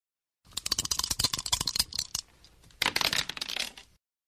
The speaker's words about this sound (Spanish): Ahora lancemos nuevamente los dados.